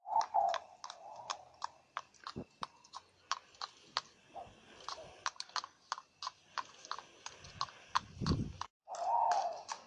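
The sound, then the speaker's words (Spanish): A horse's hooves clip-clop in a steady, even rhythm as a girl rides it to fetch maize, with a few soft breathy bursts near the start and end and no voices. “Un día la niña se levantó y fue por maíz en su caballo.”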